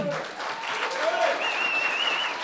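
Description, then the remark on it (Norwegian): A live crowd claps and cheers in a steady, dense wash of applause, with a few high whistles and shouts rising above it, filling the whole moment from start to finish. “Da hører man på opptak at det er folk her.”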